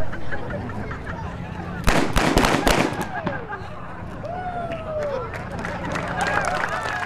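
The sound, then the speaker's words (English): A quick volley of several sharp gunshot bangs from a staged gunfight cracks out, then fades into an outdoor crowd murmur with voices calling and talking in the background. “I'm right in the middle of a gunfight.”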